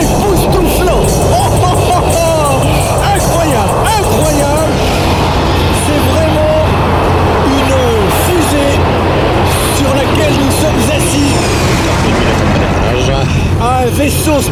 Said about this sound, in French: Ouais, ça va faire du bruit. Et c'est parti pour voler avec l'un des avions les plus incroyables de l'histoire de l'aéronautique. Alors là, l'accélération, c'est quelque chose